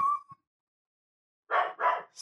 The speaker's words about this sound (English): There's the dog. I hate the dog. I hate him a lot. Um, he does that.